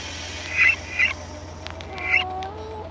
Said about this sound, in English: For several weeks he has been laboring to build a device capable of mimicking the sound you just heard, the mating call and response of the common moth pixie. If we continue to listen, this here is the male's call.